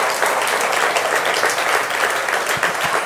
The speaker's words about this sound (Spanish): Si le vas a dar el aplauso, santo.